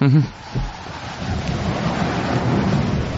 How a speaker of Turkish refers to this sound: Dışarıda kar fırtınası var.